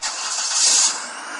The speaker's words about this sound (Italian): L'auto parte ma presto